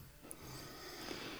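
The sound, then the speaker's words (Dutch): A large dog, an adopted Romanian stray, snoring while resting at home, a faint, rough, breathy rumble that drones on steadily through the short moment with no one speaking. “Ja, ik hoor de hond heel hard snurken.”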